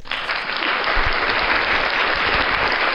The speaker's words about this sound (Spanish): Ah, hermano, un aplauso para esos bebedores